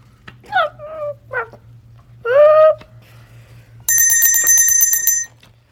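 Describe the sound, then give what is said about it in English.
Several short, harmonic trumpet calls from an emperor penguin father to his chick, the third loudest and longest, followed by the chick answering with a sustained high, thin whistle lasting over a second, over a steady low hum. “The father talks to the chick in his trumpet voice. The chick answers with a whistle.”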